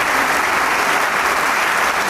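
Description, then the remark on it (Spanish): Steady applause from a large concert audience as the conductors, maestro Escobrela and maestro Chávez, walk in to open Camerata de Coahuila concert number 8: a dense continuous patter of many hands clapping, sustained evenly throughout with no voices standing out. “Y el aplauso no se hace esperar.”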